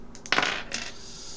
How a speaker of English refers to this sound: Better warm these dice up. Had a few low rolls in a row here